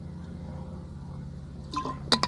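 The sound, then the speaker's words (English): A few brief liquid sounds of water being sipped or poured in small splashes come near the end over a steady low background hum. “Fortunately, I have some water here.”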